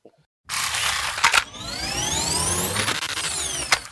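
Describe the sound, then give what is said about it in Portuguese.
A motorcycle passes by, its engine loud and rattling for several seconds, the pitch climbing and falling as it revs. No one speaks. “Agora tá passando uma moto aqui.”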